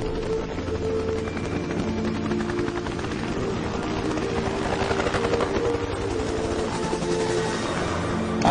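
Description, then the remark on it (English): A helicopter's rotor blades thump in a rapid, steady pulse over a deep engine roar, loud and sustained without a break, with no voices. “don't know if there's anybody here today who doesn't thrill to the sound of those blades.”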